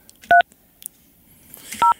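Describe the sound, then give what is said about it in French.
Two short touch-tone beeps from a phone keypad, dialing a contest winner during a live broadcast. Each is a clean dual-pitched tone, separated by over a second of near silence with faint clicks in between. “on vous rappelle qu'on fait du direct, alors on va appeler une personne.”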